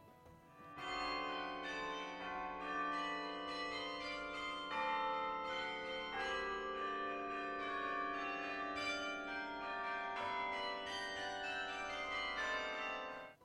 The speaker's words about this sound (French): Il alla s'enfermer dans son beffroi et se mit à marteler le clavier de son carillon.